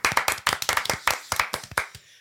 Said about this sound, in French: Euh, mais en tout cas, on peut l'applaudir. Oui, tout à l'applaudir.